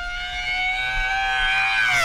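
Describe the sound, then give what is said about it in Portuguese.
A voice mimics a racing car coming out of a curve and accelerating, with a sustained, high-pitched engine whine that holds steady, then climbs in pitch toward the end. Fairly loud, with no other talking. “ele vem lá da curva lá, ó, ó. Aí vem acelerando.”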